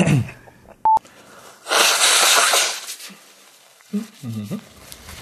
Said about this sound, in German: ja, hast du nicht fertig geschneuzt. Nee, tut mir leid.